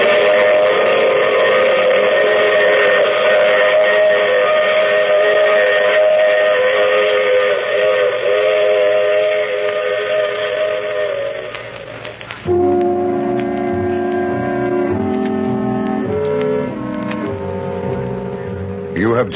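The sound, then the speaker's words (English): A long, loud steam whistle blows steadily for about twelve seconds, then gives way to a rolling train with rhythmic clatter and shifting tones, without any talking. “I take this same train every week at this same time.”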